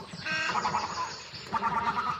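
A male little egret, back from fishing, gives rough, guttural throaty calls mixed with short yelps to signal his arrival, in two bursts of harsh, grating sound, fairly loud with no voices.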